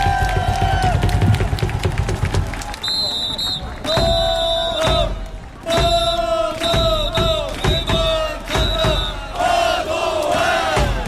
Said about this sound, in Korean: 힘찬 박수와 함성 부탁드립니다.